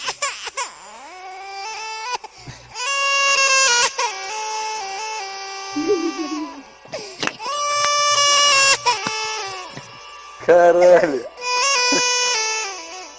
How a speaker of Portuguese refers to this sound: Moleque, fizeram um bebê com autotune. Porra, sonsaço. Adorei. Se botasse uma batida de rapper ali, meu irmão, saiu um bagulho é, maneiro.